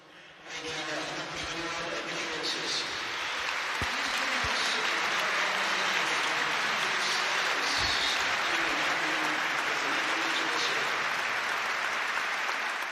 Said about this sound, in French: Des applaudissements en hommage à Christian Atsu ce week-end. Les applaudissements de St. James Park, le stade de Newcastle, en marge de la rencontre face à Liverpool.